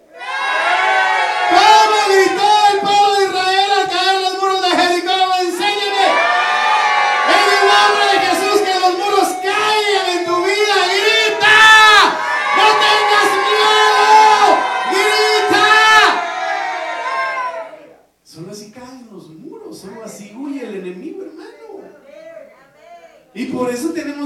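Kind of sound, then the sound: crowd, audience shouting loudly together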